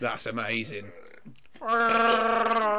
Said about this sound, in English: that was a burp